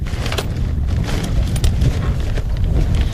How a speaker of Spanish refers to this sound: que antes hacía dos meses que no llovía y esta es la primera tormenta que cae después de dos meses, ¿verdad?